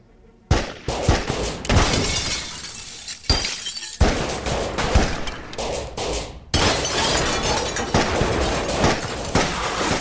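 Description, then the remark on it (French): A relentless barrage of pistol and shotgun fire from six police officers opening fire on Bonnie and Clyde's Ford, sharp loud cracks and heavier blasts overlapping almost without pause, mixed with the crash and tinkle of shattering glass. “Pas de répit pour les tirs. C'est un vrai carnage. Pistolet, fusil à pompe.”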